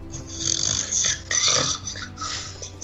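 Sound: person imitating loud snoring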